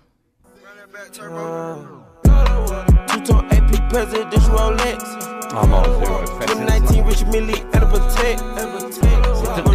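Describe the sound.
A computer-generated rap track, with beats and lyrics produced by the computer itself, opens with a brief soft synth intro, then heavy booming bass hits drop in a steady rhythm under a rapping male vocal, loud and up front.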